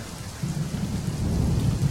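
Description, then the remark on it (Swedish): Steady, hissing rain over a deep low rumble that swells after a brief quieter start and stays loud and continuous, with no voices. “Och lite regn på det.”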